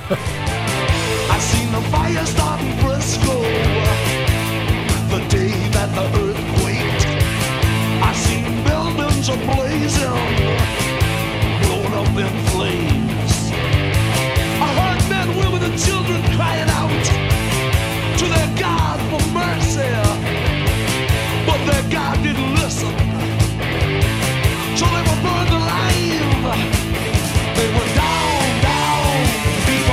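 A hard rock song, an album's opening track, starts with dense, loud instrumentation that stays steady and driving for the full half minute, with a full wall of guitars and drums and no talking over it.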